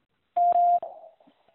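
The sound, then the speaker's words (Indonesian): A single steady electronic beep, loud and clean, lasting under half a second, followed by a brief fading tail and near silence: a quiz prompt tone signalling it is time to answer. “Silakan jawab setelah nada berbunyi.”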